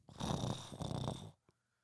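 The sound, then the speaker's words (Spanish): Someone imitates with their voice a dog growling toward a dark corner of a house: a rough, rumbling snarl held for over a second, fairly loud, then a short click before silence. “Ah, no, como que están, como que empieza a gruñir. Así, hacia un punto oscuro de la casa, güey.”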